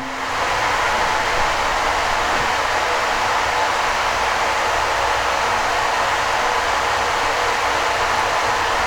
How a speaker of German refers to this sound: Ja, ihr hört jetzt den Wasserkocher rauschen aus der Ferne.